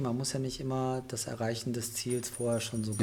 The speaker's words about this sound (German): was jetzt hier klingelt im Hintergrund, das ist unser Hund, der sich kratzt. Und das ist die Hunde, Hundemarke. So, jetzt kratzt er sich nochmal.